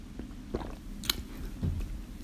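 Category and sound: human body sound, sipping and swallowing water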